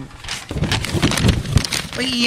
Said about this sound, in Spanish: Sonido de papel.